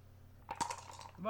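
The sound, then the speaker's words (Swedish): Dice clatter onto a hard table in two quick, sharp knocks followed by a brief rattle, fairly loud, before a voice begins speaking at the very end. “Det var en tärning för mycket.”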